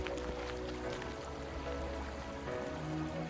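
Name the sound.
flowing river water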